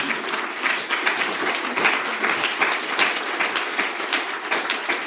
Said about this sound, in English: I don't think we could applaud all the answers, but that one certainly deserves some.